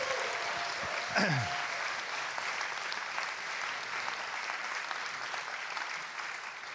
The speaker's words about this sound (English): Would you guys like to take a seat? Give them one huge round of applause to say thank you.